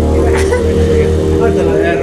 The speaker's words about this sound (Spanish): Qué pedo con las putas motos, güey. Dijeron, ah, estos güeyes van a grabar, hoy vamos a pasar, güey. Han pasado como cuatro